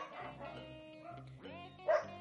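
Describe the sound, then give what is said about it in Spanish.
Dogs bark in a loose, overlapping run of barks and yips, with one rising yelp midway and the loudest bark near the end. “Empezó el huevo de los perros.”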